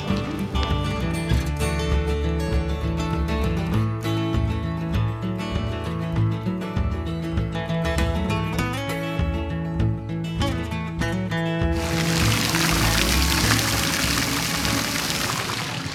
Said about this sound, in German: Was ihr hier hört, ist diesmal kein Bachlauf. Sowas hört ihr ja häufiger mal bei uns im Podcast. Wir stehen jetzt im Sprudelhof vor dem sprudelnden Brunnen. Wie würdest du das Wasser beschreiben? Trüb, matschig, kupferhaltig, eklig.